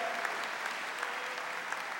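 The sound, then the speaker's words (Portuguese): An audience claps steadily to praise the Lord, a dense, continuous wash of many hands applauding together at an even level, with a few sharper claps standing out briefly and no talking over it. “Só quem tem a alegria do Senhor, aplauda Ele, diga glória a Deus, diga aleluia.”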